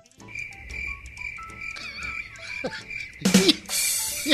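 Crickets chirp in a steady, continuous high trill, clear, with no voices. A brief burst of louder rustling noise cuts in near the end.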